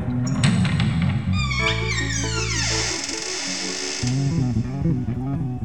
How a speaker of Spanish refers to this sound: Se está abriendo el baúl.